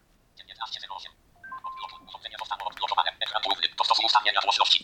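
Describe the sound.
A phone unlocks with a couple of short electronic beeps, followed by rapid synthetic screen-reader speech chattering quickly and steadily, growing slightly louder toward the end.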